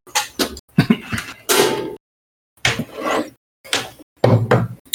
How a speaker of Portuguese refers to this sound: Peraí, eu vou, eu vou trocar a porta do fone aqui.